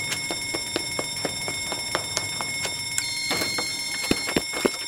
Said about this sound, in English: One false smoke alarm coming up. Everyone get ready. Once we hear the alarm sound, we'll run out the emergency exit doors together.